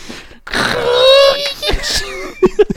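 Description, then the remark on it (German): A voice mimics plastic scraping across linoleum: a drawn-out, squeaky, whining screech lasting about a second, then a few short rasping squeaks and two quick, clipped yelps, fairly loud. “so ein ganz furchtbares. Kunststoff auf Linoleum.”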